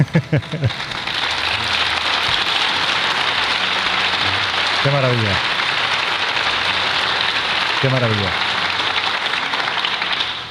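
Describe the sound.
Steady applause fills the whole stretch, a dense, even wash of clapping that never fades. A voice calls out briefly over it several times, once at the start and twice later.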